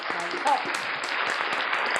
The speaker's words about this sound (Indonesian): Tepuk tangan, tepuk tangan, tepuk tangan, tepuk tangan, tepuk tangan.